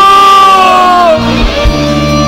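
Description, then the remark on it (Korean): An audience cries out together in Korean prayer, shouting "Lord", many voices merging into one loud, sustained, overlapping shout lasting a couple of seconds. “다 같이 우리 주여 한번 외치고 부르짖어 기도합시다 주여”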